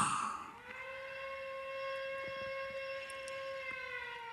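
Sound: air raid siren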